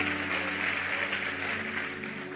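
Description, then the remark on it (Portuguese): A standing church audience applauds God, a steady, dense, continuous wash of many hands clapping at an even loudness, with a faint low hum underneath and no speech. “Vamos aplaudir a Ele, nos ficar em pé.”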